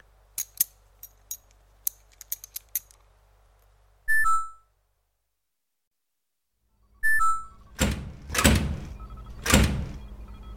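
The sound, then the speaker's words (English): Scattered sharp clicks and taps as a door that won't close is worked on, then two short electronic keypad beeps separated by silence, followed by loud rushing thuds as the door swings and shuts. “Anyway, your door won't close. You slammed it, didn't you?”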